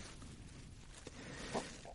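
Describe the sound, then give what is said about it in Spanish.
Strong wind buffets the window glass of a hotel room near Anfield Road, a steady low rushing roar with a couple of brief knocks or rattles from the glass near the end. No one speaks. “escuchando el viento que golpea fuerte los cristales un viento que no dejó de, de soplar durante todo el día en los alrededores de, de Anfield Road”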